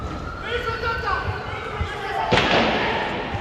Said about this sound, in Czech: Že jde o střelbu na Filozofické fakultě, potvrzují studenti i záběry z místa.